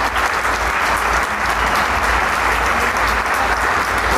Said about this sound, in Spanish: Y la gente se queda aplaudiendo, la orquesta está lista, también ya de pie, recibiendo el aplauso y el cariño del público.